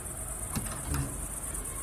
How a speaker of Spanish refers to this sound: En cuanto salimos del coche, la puerta se abrió de golpe.